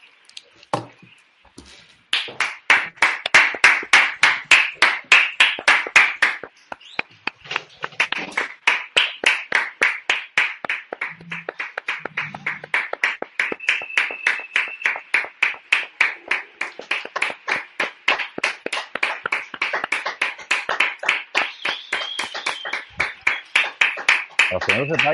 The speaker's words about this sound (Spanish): Ya están aplaudiendo.